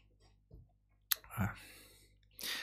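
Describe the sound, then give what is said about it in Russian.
Quiet sounds of a person drinking water: a soft gulp, a sharp click like a bottle or cup, then a breathy swallow and a short exhale, with no talking. “Я пока пил воду, я придумывал, кого сказать.”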